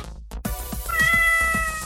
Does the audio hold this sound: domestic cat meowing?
yes